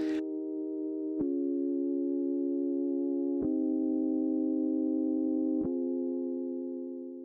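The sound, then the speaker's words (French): A sustained electronic synth pad from a song holds smooth, steady chords, shifting to a new chord roughly every two seconds with a faint click at each change, playing alone at an even volume. “ajoute des choses avec un pad, donc ça c'est des sons électroniques aussi qui vont venir donner des textures plus riches à la chanson.”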